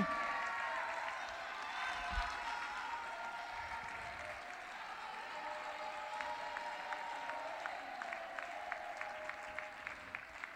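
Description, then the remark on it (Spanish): A crowd claps steadily for about ten seconds for a band, winner of fifth prize in the 2020 Murgas contest in Pontevedra, a dense, even wash of applause, with sharper rhythmic clapping emerging toward the end. “Aplausos para ….”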